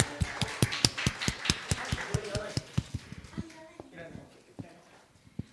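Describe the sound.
Audience applause: steady, sharp hand claps in a quick even rhythm that thin out and fade to scattered claps, with faint voices murmuring underneath.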